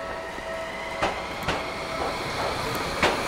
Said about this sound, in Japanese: あ今世田谷線来ましたねえっ、と世田谷線ってねなんかこう、えー、2両編成の、えー、ゆっくり走る電車で結構のんびりします、うん、